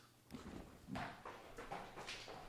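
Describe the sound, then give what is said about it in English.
A ball bounces on the ground several times, each soft thud landing at uneven intervals, fairly quiet with no one talking. “He just bounced the ball on the ground.”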